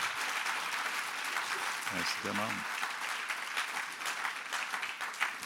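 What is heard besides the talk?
audience applause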